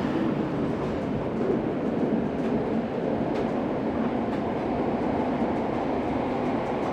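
The GoldenPass Panoramic train runs along its rails in Switzerland with a steady, dense rumble that holds level throughout, broken by faint, irregular clicks and taps from the wheels. No one speaks.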